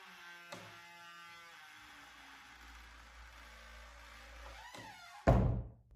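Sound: door closing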